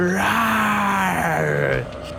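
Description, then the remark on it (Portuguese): A single drawn-out vocal scream lasting nearly two seconds, a voice imitating the cry of a creature coming out through a burst-open door, with a strained, groaning tone that holds steady then slides down before cutting off. “você vê uma criatura saindo dando um gritão, assim, quando ela olha pra vocês.”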